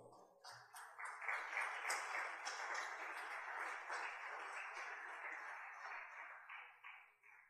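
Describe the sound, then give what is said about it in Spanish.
An audience at a sermon applauds themselves for coming, together in a steady, dense burst of clapping that lasts several seconds, then quickly fades out. “Dese un aplauso, por favor.”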